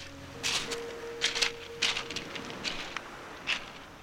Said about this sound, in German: Zwischen Fels und Meer spazieren Passanten im Kies. Ein beliebter Ausflugsort der Rüganer.